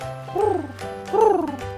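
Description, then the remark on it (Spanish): Two soft, rounded dove coos, each a smooth rising-and-falling call, separated by a short pause, over a faint low hum with no talking. “A continuación, Noé mandó una paloma pero la paloma no pudo encontrar un lugar donde posarse, ni siquiera un árbol.”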